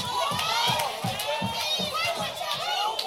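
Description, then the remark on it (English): A church audience shouts and cheers together during a sermon, a dense wash of many overlapping voices sustained throughout, loud, with individual yells rising above the crowd noise. “Come on, shout now.”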